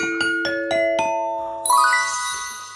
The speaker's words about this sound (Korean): 지금 좋아서 이제 MB에서 터지면은 딩동댕이에요. MB에 터지면 자 갑니다.